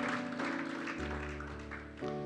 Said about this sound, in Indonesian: Tepuk tangan yang panjang bagi Tuhan Yesus.